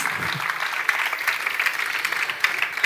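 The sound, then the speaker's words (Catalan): A crowd applauds performing children steadily for about three seconds, a dense even patter of many hands clapping at a moderate level, with no voices standing out. “un aplaudiment per ells, vinga, que ho fan molt ah, bé.”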